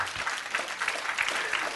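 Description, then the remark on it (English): An audience claps steadily, a dense wash of overlapping handclaps at moderate volume that continues evenly throughout without pauses or speech. “Stubbornness, I'm waiting while you clap your hands.”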